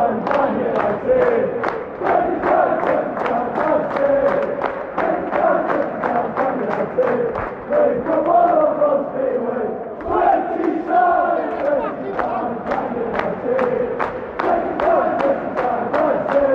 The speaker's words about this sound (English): it, was amazing to be back, and uh, the noise there just gives an example of the um, the passion of, of the 10,000 fans back Old Trafford, and that is the focus of this week.